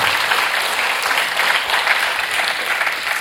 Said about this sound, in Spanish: Démosle un aplauso al Señor por esos padres maravillosos.